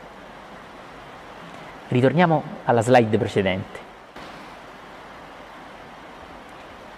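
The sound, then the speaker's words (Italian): Rain falls steadily, a soft, even hiss that fills the whole recording at a constant level, while a man speaks a short sentence near the middle. “Per favore, ritorniamo, sentite che bella la pioggia che cade.”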